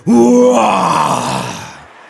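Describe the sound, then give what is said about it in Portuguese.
A crowd of voices, asked for their best roar, imitates a lion's roar, one loud, sustained, groaning burst of about two seconds that starts strong and gradually fades away. “Ele é um rugido. Vamos lá, me dê seu melhor rugido.”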